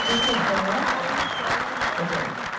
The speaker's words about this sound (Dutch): In de zaal werd er een beetje meegeklapt en een beetje meegezongen.